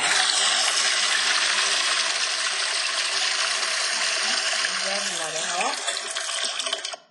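A toilet double flush, a loud rush of water pouring steadily for several seconds, its swirl shifting briefly near the end before cutting off abruptly.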